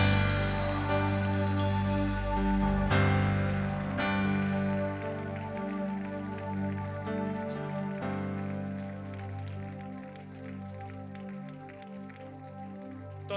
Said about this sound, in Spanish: ¿Por qué no le dan un fuerte aplauso? ¿Por qué no dan un fuerte, fuerte, fuerte aplauso?